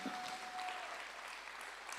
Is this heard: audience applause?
yes